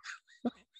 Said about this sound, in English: you can hear my dog in the background yeah. crying.